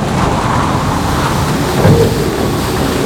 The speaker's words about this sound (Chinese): 当时的河水汹涌澎湃，强大的台风来侵袭，路面淹水，风雨交加。